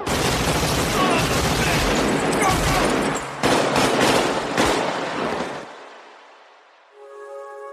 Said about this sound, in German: Und wenn nichts mehr hilft, gibt es wenigstens eine ordentliche Schießerei.